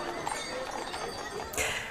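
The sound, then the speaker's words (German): Hooves of prize-winning horse-drawn carriages clip-clop steadily along the afternoon festival parade of the 85th horse market in Geildorf, Germany, mixed into a busy outdoor wash of crowd noise and indistinct voices, with a sharper burst of sound near the end. “Höhepunkt des 85. Geildorfer Pferdemarktes war am Nachmittag der große Festumzug, bei dem auch die prämierten Pferdekutschen vom Morgen dabei waren.”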